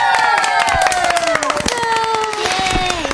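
audience clapping and cheering

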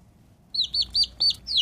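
baby chick peeping

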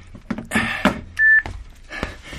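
telephone keypad dialing tones

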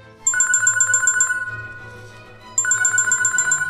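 phone ringing

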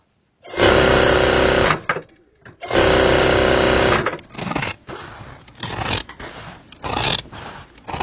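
sewing machine running

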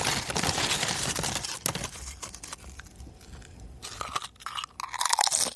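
crunchy chewing

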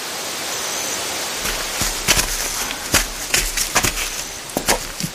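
waterfall rushing

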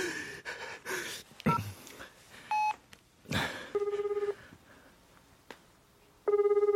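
telephone dialing tones

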